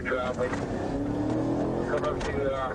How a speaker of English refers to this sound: He's got the magic of the motorcycle, which is he can go from zero to a hundred and nothing's flat.